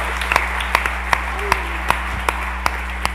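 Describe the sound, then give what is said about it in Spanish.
Audience applause welcoming a pastor at a gathering in Mexico: steady, evenly spaced claps, about eight sharp beats at a slow rhythm, sounding over a constant low electrical hum with no voices. “¿Qué les parece si les damos una bienvenida con un fuerte aplauso?”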